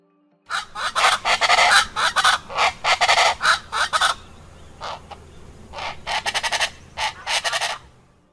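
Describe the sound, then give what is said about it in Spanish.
Chachalaca calls: loud, raucous, rapid bursts of harsh cackling, repeated in choppy rhythmic phrases with brief pauses, with no talking. “La chachalaca. Una de estas aves escandalosas se escucha más o menos así.”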